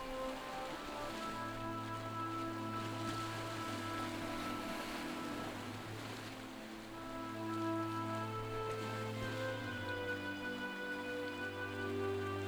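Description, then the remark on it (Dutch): Steady ocean waves roll rhythmically onto a beach and draw back into the sea in a continuous hiss, rising around the middle, blended with sustained soft tonal music drones throughout; no one speaks. “Luister hoe de golven ritmisch het strand oprollen en zich vervolgens weer terugtrekken in de zee.”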